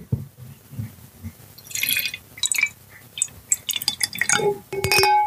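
Wine pours into a glass, a gurgling trickle with bright glassy clinks and drips, building in pitch toward the end as the glass fills. No one speaks.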